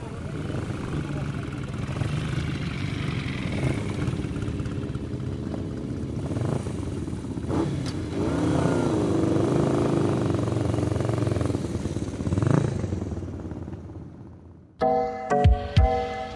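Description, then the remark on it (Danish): Motorcycles ridden slowly and carefully around by riders smiling and waving, in nice clothes, their engines a steady, fairly loud low rumble with indistinct voices mixed in, before the sound cuts off and a brief musical jingle plays. “Så vi kører stille og roligt rundt og smiler og vinker, iført noget hyggeligt tøj, og kører helt forsigtigt, og prøver at skabe noget positivt opmærksomhed på folk, der kører motorcykel.”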